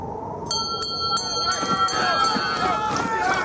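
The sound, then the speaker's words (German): A shrill alarm bell rings aboard the ship Karluk, its hull cracked, in rapid, evenly spaced strikes, its high metallic tone sustained over a busy wash of noise and indistinct voices as the captain shouts orders to roll the snow off the deck. “Gegen die schrillende Alarmglocke anbrüllend, befiehlt der Kapitän, sofort allen Schnee vom Deck zu rollen.”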